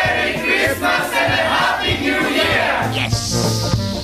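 The Solid Gold crew cheers and shouts together as a Christmas greeting, a loud, sustained burst of overlapping voices with whoops and yells, holding steady for several seconds.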